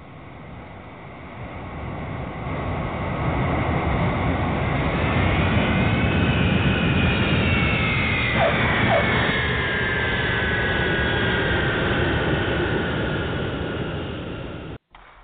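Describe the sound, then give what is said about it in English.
A jet airplane landing: a loud, steady engine roar swells over the first few seconds, with high whining tones sliding in pitch, then holds before cutting off abruptly at the end. “We're going to land this airplane right now.”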